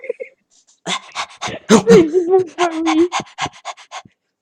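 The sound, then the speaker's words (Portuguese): A person makes a run of quick, breathy dog-like vocal bursts, with a longer voiced, whiny stretch in the middle, imitating a dog barking as a Tourette-like tic. “Eu sou muito tipo cão. Ladra às vezes.”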